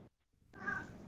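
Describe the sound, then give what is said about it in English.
A pet cat lets out a single drawn-out meow, fairly quiet, after a brief moment of near silence. No one speaks over it. “oh my gosh, that's my cat in the background.”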